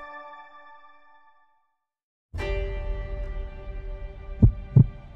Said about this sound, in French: Dans sa poitrine, il sent battre son cœur très vite et très fort.